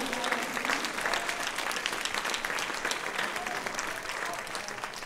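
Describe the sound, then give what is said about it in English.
A church audience applauds the Lord steadily during a sermon. Dense, overlapping hand claps form a continuous bright wash of sound that stays fairly even in loudness throughout. “Go ahead and give the Lord a hand clap if you believe it.”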